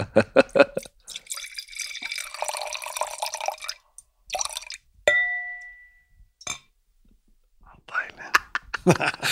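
Close-up of wine pouring into a glass, with the microphone held right up to the pour: a few seconds of steady, splashy gurgling, followed by a brief ringing clink and some soft, breathy rustling noises.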